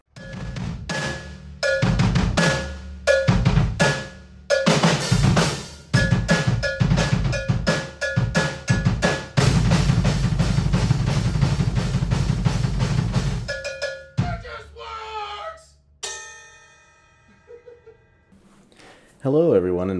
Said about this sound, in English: And yeah, let's just get into it. Cue that intro.